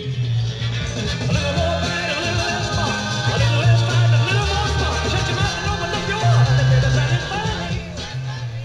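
A 1950s rock and roll song plays steadily and fairly loud, a full band with a thumping bass line and bright upper instruments, with no talking over it.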